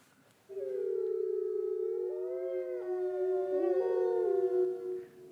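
Several wolves in Norway howl together in a long, sustained chorus, their wavering voices overlapping and rising and falling in pitch. Fairly loud and continuous, with no talking.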